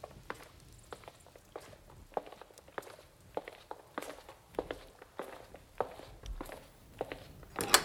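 Footsteps of a drenched man walk steadily toward the listener, each step a soft, irregular thud that grows a little louder near the end, with no voices.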